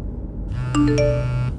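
A short electronic mobile phone ringtone from a phone in the right pocket of a jacket, inside a car: a few bright, bell-like chime notes stepping in pitch over a steady low hum, with no one speaking.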